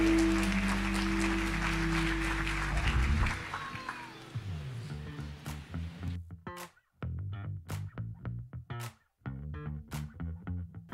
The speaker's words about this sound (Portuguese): Aplauda Jesus, queridos.